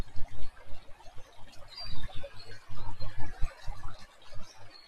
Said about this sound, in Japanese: 鳥の声と、あとカエルとセミがすでに鳴いていて、すごいですね、音が。